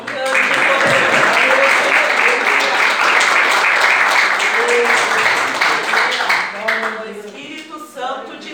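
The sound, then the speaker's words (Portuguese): Sustained applause from a church audience, given for the Lord, a dense, steady wash of clapping that holds strong for several seconds before thinning out, with voices rising through it toward the end. “E, as, e agradeço a oportunidade, as palmas logo do Senhor.”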